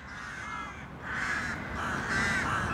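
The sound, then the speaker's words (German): A crow caws repeatedly in harsh, drawn-out calls, about four in a row with short gaps, loud, with no one talking. “wie intelligent Krähen sind, das möchte ich euch mal am Beispiel mit meiner Krähenfreundin Coco erzählen”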